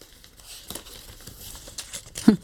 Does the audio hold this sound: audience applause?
no